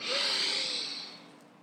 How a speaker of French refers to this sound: Juste prends une bonne inspiration et une bonne expiration. Donc tu vas t'inspires bien par le nez.